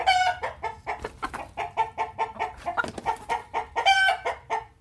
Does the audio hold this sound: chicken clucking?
yes